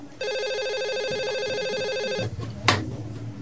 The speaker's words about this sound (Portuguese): telefone tocou, mas não pude atender. Eu estava em outra ligação.